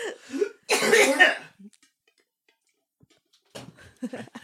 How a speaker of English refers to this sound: see, I'm coughing now. And I'm trying to talk.